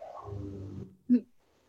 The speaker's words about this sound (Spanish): Ah, pues bueno, qué bueno que lo oyes sí, está súper padre. Porque tengo un bulldog que ronca.